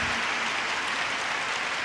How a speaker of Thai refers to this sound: ช่วยลุกขึ้นยืน รับเสียงปรบมือนะคะนะคะ